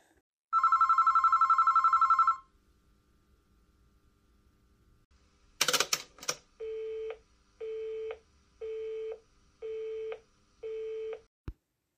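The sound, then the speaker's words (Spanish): A steady electronic tone sounds for about two seconds, then a clattering burst like a receiver being handled, followed by five evenly spaced beeping rings of a telephone, ending with a sharp click. “Ya te dije que no quiero saber nada de ti porque insistes tanto en llamar.”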